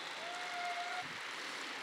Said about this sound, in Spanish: Vamos, yo sé que puedes aplaudir más fuerte. ¿No? ¿No estás agradecido con Dios? Pues demuéstrale con tus palmas lo agradecido que estás con Él.